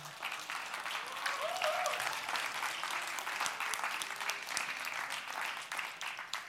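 An audience breaks into steady, sustained applause for Jesus after a closing prayer at a church service, a dense wash of many hands clapping that stays loud and even throughout, with faint voices calling out beneath it.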